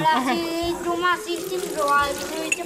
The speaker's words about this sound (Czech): Tak voda teče, to už je kolik? Už bylo šest. Šest litrů už proteklo.